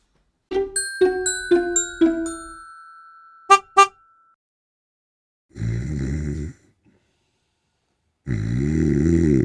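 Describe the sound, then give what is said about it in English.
A person imitates loud snoring, two long rasping snorts a couple of seconds apart, after a quick run of bright, horn-like tonal beeps and two short blasts. “Wow, you snore loud. it's fake, but it's you know, I'm tired.”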